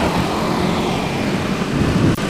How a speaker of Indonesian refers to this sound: tapi di belakang ini ramai banget motor yang di depan pasar Cicadas